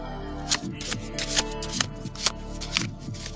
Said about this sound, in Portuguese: Vou pedir pra ele aqui puxar uma carta. Pera aí, vou embaralhar